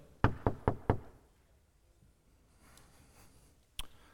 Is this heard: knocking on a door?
yes